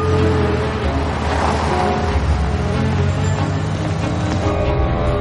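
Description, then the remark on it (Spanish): A black car drives along a road and turns right, with a steady, loud engine drone and rumbling hum that holds constant throughout, with no voices. “El coche negro circula por la carretera y gira hacia la derecha.”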